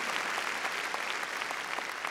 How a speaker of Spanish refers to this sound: Démosle palmas fuertes a ese Dios grande. Qué, qué maravilloso el Señor.